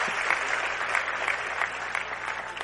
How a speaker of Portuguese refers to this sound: merece palmas. Uhul.